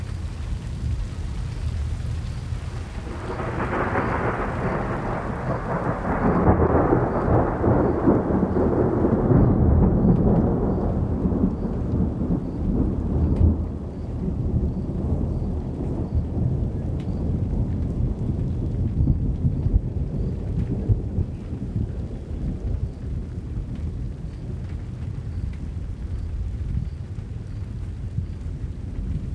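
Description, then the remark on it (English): Heavy rain from an evening thunderstorm near the foothills of the Manzano Mountains in central New Mexico pounds steadily on a metal roof, a dense, loud drumming that swells in as drizzle turns to downpour and continues unbroken, with a deep low rumble beneath it. “What begins as a drizzle turns into a downpour, drumming rhythmically on a metal roof.”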